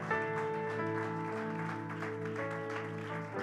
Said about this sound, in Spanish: Fuertes aplausos de alabanza, mis hermanos.